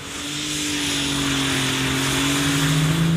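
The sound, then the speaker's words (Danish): A tractor engine at a tractor pulling event roars steadily and loudly, its low droning hum holding a constant pitch with a faint rise, broad rumbling noise spread above it, no voices. “Det er traktor, det her.”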